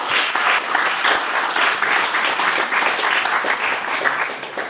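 Sustained audience applause: a dense, steady wash of many hands clapping at an even loudness for several seconds, with no voices rising above it.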